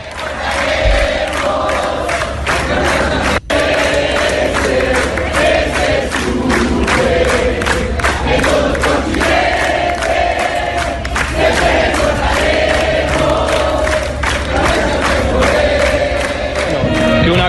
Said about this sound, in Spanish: En el Hotel Mogano, ahí en las afueras del estadio, cantan los hinchas del Chapecoense lo que cantaban los hinchas de Nacional cuando sucedió la tragedia. Que lo escuchen en todo el continente.